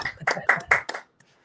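A brief round of hand clapping by players representing Puerto Rico in the CONCACAF U17 championship, applauding themselves: a handful of sharp, fairly loud claps in a quick, slightly uneven rhythm that stops after about a second, leaving near silence.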